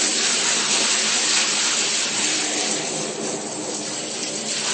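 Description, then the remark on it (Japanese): Hot water pours steadily from a bath tap, rinsing detergent foam from a bathtub, in a loud, continuous rush that stays even throughout, with no talking. “そそいつをちょっとお湯を出すのをお休みにして、やり過ごしちゃって、全部出ていったのを確認してからもう一回やりますと、今度ほとんど、あの、泡が残らないわけです。”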